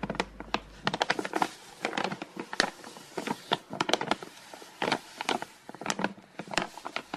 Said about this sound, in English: But anyway, okay, paper, paper. She's just turning pages, pages in a book, yeah. crumpling bits of paper. Isn't it lovely?